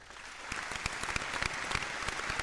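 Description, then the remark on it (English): A round of applause: dense, steady clapping from several people, with sharp individual claps popping out of a continuous bright patter that holds at an even loudness throughout. “Round of applause for him, man.”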